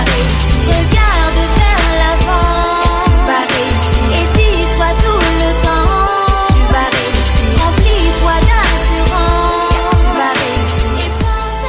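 A music track plays loudly and continuously, with full, dense instrumentation and melodic lines riding over a steady rhythmic beat from start to finish.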